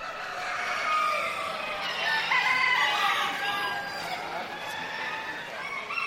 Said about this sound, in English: Now, a chicken show may not have the prestige of its canine cousin, but as you'll hear in this sound montage from Living on Earth's …, these birds can strut their stuff.